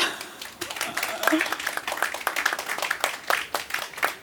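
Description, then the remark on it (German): An audience applauds a guest being introduced, with a dense, steady patter of many hands clapping for about four seconds, fairly loud and even, with faint voices mixed underneath. “Einen Applaus bitte.”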